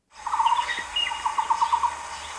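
A Taiwan barbet, the county bird of Hsinchu County, Taiwan, calls in two runs of hollow, evenly spaced notes, like rapid knocks on a wooden block, with fainter higher bird chirps and a steady hiss behind.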